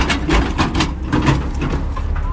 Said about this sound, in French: Les pelleteuses s'activent autour du cratère.